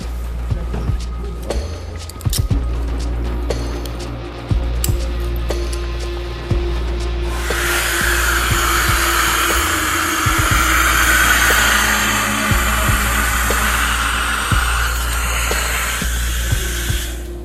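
Strong wind of about 28 knots blows steadily against the microphone as a weather balloon is about to be launched, a deep buffeting rumble that surges into a louder, rushing hiss partway through and keeps roaring without letup.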